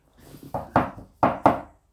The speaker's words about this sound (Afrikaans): Hulle gaan klop daar na oom se deur.